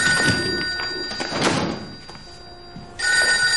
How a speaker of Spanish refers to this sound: coge el teléfono.